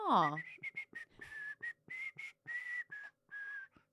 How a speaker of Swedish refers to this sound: Respekterar du mig mindre för att jag inte kan vissla? Kan du inte vissla? Nej.